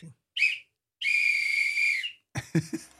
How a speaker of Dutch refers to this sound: Ja, goed, fluitje.